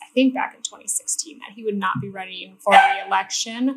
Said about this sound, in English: Um, sorry about my dog.